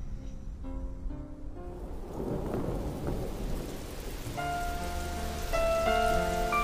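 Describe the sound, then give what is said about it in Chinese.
Steady rain patters on leaves in a dense, continuous hiss, with a low rumble swelling in the middle and faint sustained musical tones entering toward the end. “你有多久没有打开耳朵，细细聆听雨滴打在树叶上的声音？”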